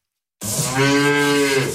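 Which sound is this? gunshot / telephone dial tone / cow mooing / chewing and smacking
cow mooing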